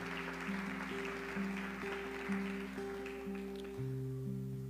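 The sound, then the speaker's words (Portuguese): An audience claps in praise of God over sustained, shifting keyboard chords; the applause fades out after about three seconds while the chords continue. “Vamos dar mais um salva de palmas ao nosso Deus.”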